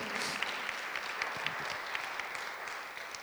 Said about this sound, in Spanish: Si le un aplauso, déselo al Señor.